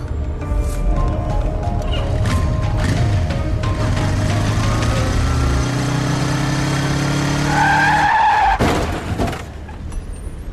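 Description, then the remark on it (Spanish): A motorcycle engine drones loudly, then tires skid with a sliding squeal before a sharp, noisy crash near the end, followed by a brief scraping rumble; the rider is not wearing a helmet. “Uy, qué palo, encima sin casco.”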